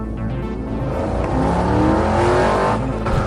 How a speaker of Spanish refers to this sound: Rocco ya se subía a su carro y pronto desaparecería del camino.